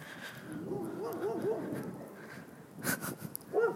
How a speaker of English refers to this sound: Oh man, big dogs, big dogs.